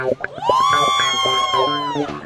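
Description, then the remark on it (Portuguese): A crowd of single people lets out a loud, sustained shout that rises in pitch at the start, then holds steady for about two seconds before fading. “Quem tá solteiro dá um grito.”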